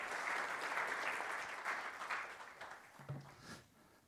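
A crowd claps steadily, a dense patter of many hands, the applause thinning and fading toward the end, given as a round of applause for volunteers who acted out an illustration.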